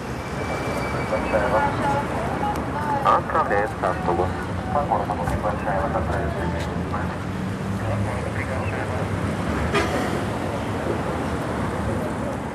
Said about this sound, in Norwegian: Det er heftig trafikk på Nevskij prospekt, den flere kilometer lange hovedgaten i St. Petersburg. Her går en blanding av totalt utrangerte lastebiler og lerete Volgar og ladar, produsert i Sovjetunionens glansdager, side om side med glitrende,